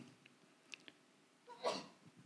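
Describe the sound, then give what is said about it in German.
A single sneeze bursts out near the end, a sharp breathy explosion, preceded by a few faint clicks and rustles against an otherwise quiet background. “Gesundheit.”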